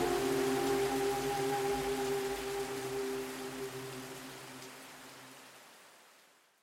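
Heavy, torrential rain in Guyana, near Johnstown, pours in a dense, steady hiss beneath a low sustained droning tone, the whole sound gradually fading away toward the end.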